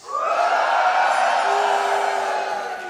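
A live audience whoops and cheers loudly for about three seconds after being asked to make noise if they still support Elon Musk: a dense, sustained roar of raised voices with a few high whoops rising above it before it begins to ease off.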